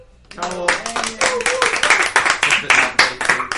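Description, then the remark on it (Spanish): A burst of applause from a group: many hands clapping in a dense, irregular patter that starts abruptly and holds steady and fairly loud, with some voices mixed in early on. “Gracias, chiquillos, y nos vamos con un aplauso.”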